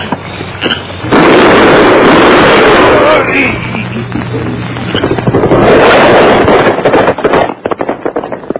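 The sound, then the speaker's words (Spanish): A loud, dense volley of gunshots fired at night from dense, dark woods crackles almost without pause for several seconds, easing briefly before a second burst, then breaking into scattered sharp pops as it fades out. “De entre el monte cerrado y oscuro salieron los fogonazos que como relámpagos hirieron las tinieblas de la noche”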